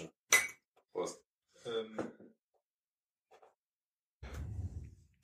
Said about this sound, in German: Ähm, du musst, wenn, während du, während du eingießt, musst du dir das ans Mikro halten. Sonst haben noch die Hörer überhaupt nichts davon.